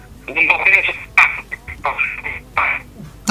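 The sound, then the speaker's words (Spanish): A choppy, band-limited phone line with a voice breaking up in short bursts, cutting in and out amid crackling interference and a low background hum. “Te, estamos escuchando con un poquito de interferencia.”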